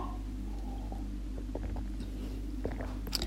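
Someone takes a quiet sip of water, with a few soft wet mouth clicks and a swallow over a steady low hum. No one speaks.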